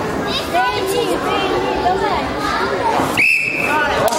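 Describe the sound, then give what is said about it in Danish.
A single sharp, high-pitched whistle blast, steady in pitch and lasting about half a second, cuts through a constant background of children's chatter and crowd noise. “Jeg fløjt op om lidt.”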